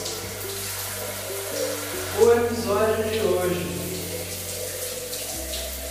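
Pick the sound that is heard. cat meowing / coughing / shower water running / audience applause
shower water running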